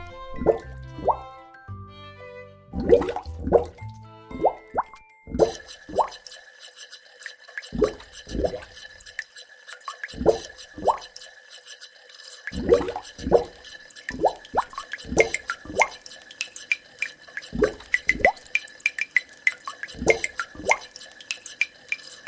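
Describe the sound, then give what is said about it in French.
A funny song made with a dripping tap: the tap drips in a bouncy, rhythmic pattern, each clear plop landing like a beat in a playful song, with a steady tonal drone underneath after the opening seconds. No one speaks. “La première, c'est avec un robinet”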